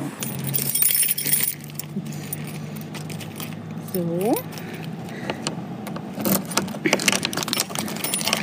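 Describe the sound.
Metallic jangling and clanking as a heavy lock is removed from a thick, large, heavy door in a wall over two metres thick, with scattered clicks and scrapes, a brief rising metal squeak midway, and a low steady hum underneath; someone says a single word.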